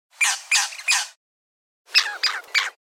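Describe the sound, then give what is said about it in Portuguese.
Two loud sets of harsh, squawking bird calls, three sharp notes each with a pause between: a thornbill's imitation followed by the calls of a crimson rosella, a much larger and more aggressive parrot. “Ele também imita um papagaio, uma rosela vermelha, bem maior e bem mais agressivo também. Ouça só o canto dos dois comparando.”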